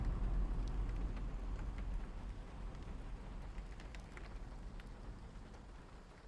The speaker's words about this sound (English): A gust of wind and rain rattled the thistles outside Dr. Lilly's bay window.